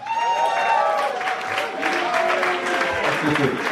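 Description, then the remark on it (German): Steady, dense studio audience applause in the Fritz studio for Tommy Wosch and Michi Balzer fills the whole few seconds, with a high whistling tone sliding downward over the clapping near the start. “Ein freundlichen Applaus für Tommy Wosch und Michi Balzer.”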